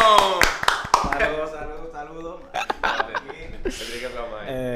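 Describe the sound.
A short burst of scattered, sharp hand claps up close, fading after a second, with laughing and chattering voices carrying on underneath and afterward.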